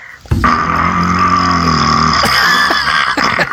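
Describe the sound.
A voice imitates a long, slow growling fart, a loud buzzing rasp that holds steady for about three seconds before sputtering out, alone with no talking.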